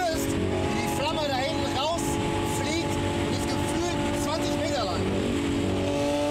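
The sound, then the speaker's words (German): A loud, tuned car engine drones steadily while its pitch repeatedly sweeps up and down in quick revs, continuous throughout. “Viele würden gerne genau solche krass lauten Autos oder auch Motorräder verbieten lassen.”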